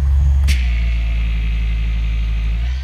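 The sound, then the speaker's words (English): A plugged-in orbital polisher buffs against the skin of the right outer thigh with a steady, low motor drone that runs unbroken throughout, marked by a brief scuffing click near the start. “And it's creating heat, but it's mostly just buffing.”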